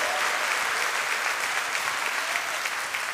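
A church audience claps steadily and loudly during worship, a dense, continuous wash of applause from many hands that holds at the same energy throughout, with no voices standing out.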